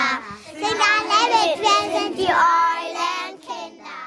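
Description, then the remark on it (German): A group of kindergarten children in their morning circle on Ash Wednesday, at the St. Josefsheim kindergarten, call out together in bright, cheerful voices, a lively overlapping chorus that stays loud for a few seconds before trailing off. “Das sind die Eulenkinder.”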